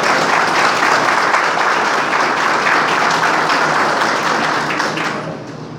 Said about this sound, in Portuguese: Uma salva de palmas ao nosso general, por favor.